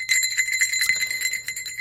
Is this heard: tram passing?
no